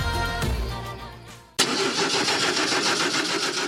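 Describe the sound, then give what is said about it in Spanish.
A car engine cranks with a labored, rhythmic churn for a second and a half, then abruptly catches and settles into a steady, loud running rumble. “Su coche le dejará tirado, pero nosotros nunca.”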